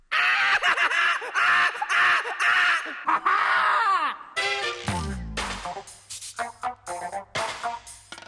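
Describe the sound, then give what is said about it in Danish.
A young woman screams in loud, anguished, high-pitched bursts over about four seconds, piercing, followed by a falling sweep and a rumbling low sound. “Pigen skreg hjerteskærende.”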